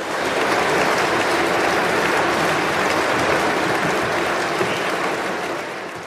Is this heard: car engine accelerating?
no